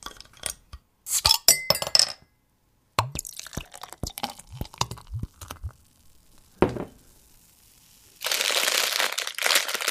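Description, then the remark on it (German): A beer bottle being opened: glass clinks and rattling handling noises with short pauses, then a steady fizzing hiss that runs to the end. No one speaks. “Und nein, ich meine jetzt nicht die Bierflasche, die geöffnet wurde.”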